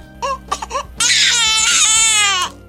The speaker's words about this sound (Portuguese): Nossa, seu bebê chora demais.